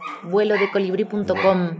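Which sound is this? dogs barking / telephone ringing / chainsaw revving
dogs barking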